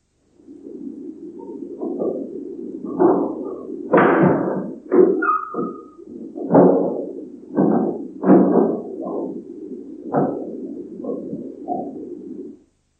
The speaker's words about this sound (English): This session proved to be the most exciting one, for we firmly believe we recorded the sound of a ghost stepping forward and opening something which sounds like a door.